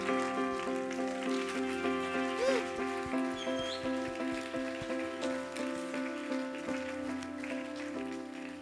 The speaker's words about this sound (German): Geben wir am Ende einen riesen Applaus, stellen wir auf dazu und sagen, wow, was du machst, ist crazy.